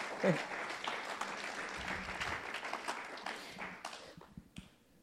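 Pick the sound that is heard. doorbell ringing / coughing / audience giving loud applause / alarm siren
audience giving loud applause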